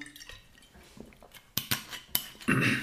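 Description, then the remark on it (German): Small glassy clinks and taps as a drinking glass is handled, followed by a soft gulp of water, with no talking. “Ähm, denn ich werde jetzt ganz kurz einen Schluck Wasser nehmen”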